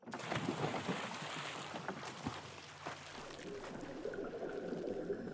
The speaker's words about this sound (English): This isn't just any old swimming pool, it's the Neutral Buoyancy Lab, located at NASA's Johnson Space Center in Houston, Texas. This special pool contains 6.2 million gallons of water, enough to fit nine Olympic sized pools inside.